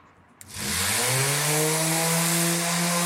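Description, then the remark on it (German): An electric sander switches on with a click and spins up to a loud, steady whir and hiss, running on without pause, with no voices, as it sands lacquer off a wooden door propped up on trestles beside a busy street. “Mit der Maschine kann man Lack von Holz abschleifen.”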